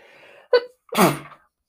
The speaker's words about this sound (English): That's my sneeze.